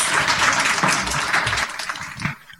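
A crowd gives one more round of applause to two women from Denver, dense, steady clapping that fills the room, then thins and fades out over a couple of seconds.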